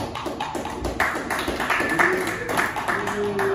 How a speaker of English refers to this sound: Okay. A little bit of cheering, more clapping. Can't follow directions.